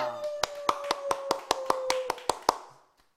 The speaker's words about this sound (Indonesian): Ngapain sih tepuk tangan? Gak, gak ada yang harus tepuk tangan.